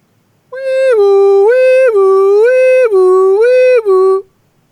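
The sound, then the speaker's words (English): A loud city emergency siren alternates between two pitches in a steady hi-lo pattern, about four cycles over a few seconds, with no one speaking and nothing else audible. “Uh, no, I mean, uh, yes, sirens do, do remind me of being in the city, no question.”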